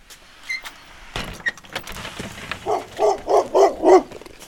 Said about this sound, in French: Tout de suite, le chien des voisins se manifeste.